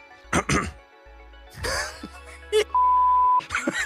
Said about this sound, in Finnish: Teit ihan tahallas. Yskitti.